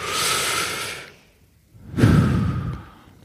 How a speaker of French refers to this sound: si vous êtes fumeur, a priori, si vous juste quand vous avez besoin d'une clope, c'est juste que vous avez besoin de respirer un coup, quoi. Une vraie respiration, genre.